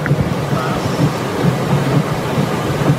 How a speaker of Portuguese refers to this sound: Está chovendo muito forte.